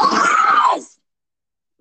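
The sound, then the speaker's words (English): A loud, close-up excited scream, right in a listener's ear, bursts out for under a second, harsh and piercing, then cuts off into silence. “she screamed that right in my ear.”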